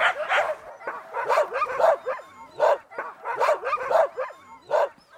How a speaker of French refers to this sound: Tous les chiens ici, là, environ une quarantaine de chiens. Ça mange environ 80 livres de viande par jour couper tout en morceaux, puis il aime bien ça.